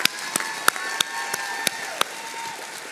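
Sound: audience applause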